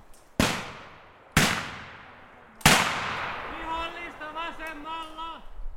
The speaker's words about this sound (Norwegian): Lyden av skudd gjaller mellom trærne dypt inni de finske skogene.